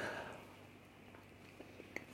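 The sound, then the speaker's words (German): Someone bites a piece off their bread and chews quietly, with a few soft crunchy clicks near the end over a low background hush. No one speaks. “Ich muss eben ein Stück von meinem Brot abbeißen.”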